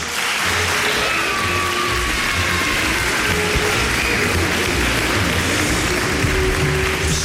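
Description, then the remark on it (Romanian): A large crowd claps steadily for several seconds in applause for children who performed on the national arena, a dense, even wash of applause that stays loud throughout without fading, with a faint murmur of voices underneath. “Încă o dată, bravo copiilor care au fost aseară pe arena națională și uh, exemplul lor ar putea să ne însuflețească întotdeauna avem și noi uh, niște aplauze pentru copilașii ăștia.”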